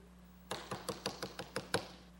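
Eight quick, evenly spaced knocks rap on a door, crisp, in a steady run lasting just over a second over a faint background hum, with no voices, representing Peter continuing to knock at a closed door.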